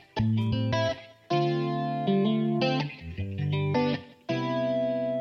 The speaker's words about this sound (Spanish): Esto es un trap comercial. Si se le puede llamar así, porque ustedes saben que los traptólogos de, del género, llamarle trap algo comercial, es como que no, no, no, pero realmente es más bien como eh, un ritmo comercial como RB.